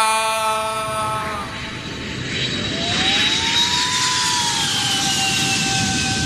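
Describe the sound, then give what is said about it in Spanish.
A small airplane's engine roars, a steady loud drone with whining tones that dip and shift in pitch as it comes in to land. No voices are heard. “Los pilotos aterrizan, vamos a buscar eso.”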